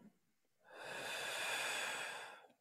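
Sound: deep breath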